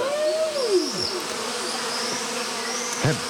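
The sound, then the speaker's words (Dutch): A high, whining mosquito buzz hovers, its pitch sliding and swooping as it circles, with no talking over it. “Zo, die muggen, joh.”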